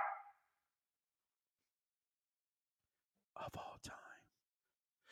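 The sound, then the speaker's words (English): A man whispers in short breathy bursts after a few seconds of near silence; the hushed voice is airy and unvoiced, with no clear spoken tone. “In case you didn't hear me when I whispered it.”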